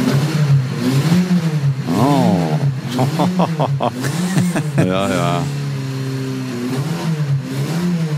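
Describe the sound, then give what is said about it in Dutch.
A vintage 1962 Porsche 356 Carrera 2-litre cabriolet engine revs up several times, its pitch rising and falling in throaty bursts, while people laugh and talk briefly over the steady idle. “Een Carrera 2 liter cabrio uit 1962.”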